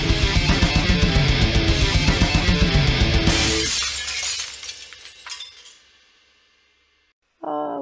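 Loud, close glass shattering with a dense crash and rapid rattling shards for about three seconds, then scattered tinkling pieces settling and fading into near silence before a brief voice.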